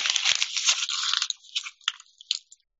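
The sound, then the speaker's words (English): A sheet of paper with words on it, sprinkled with a little salt, being crumpled into a ball: a dense burst of crackly, crinkling noise for over a second, then a few sharper separate crackles tapering off into silence. No talking. “Take this paper and crumple it into a ball.”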